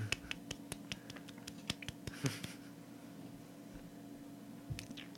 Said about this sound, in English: that was a golf clap. For what?